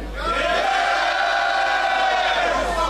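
An audience cheers and shouts loudly for about three seconds to vote by noise for a contestant on the host's left side, a sustained wall of whooping voices that swells quickly and holds steady without pause.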